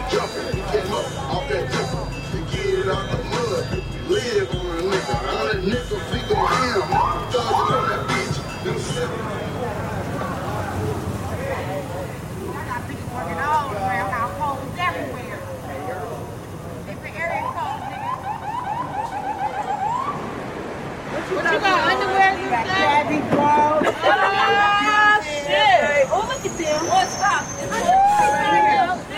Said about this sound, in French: Ça, c'est le son de la rue dans Game Girls, justement la rue de Skid Row,